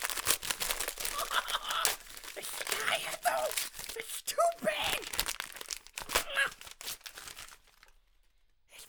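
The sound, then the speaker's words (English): Wrapping paper rips and crinkles in quick, scratchy bursts as a gigantic gift package that has just arrived is torn open, with muffled voices underneath, before the rustling dies away near the end. “Uh, you, you have to open it!”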